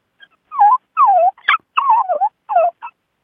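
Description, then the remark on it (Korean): A person imitates an eager puppy begging for a treat, giving a run of six or seven short, high, whiny yelps and whimpers that rise and fall in pitch, with brief pauses between. “그리고 이제 간식 먹고 싶은 강아지.”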